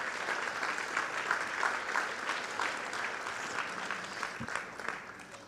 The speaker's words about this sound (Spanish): Denle un aplauso al Rey de Reyes y Señor de Señores.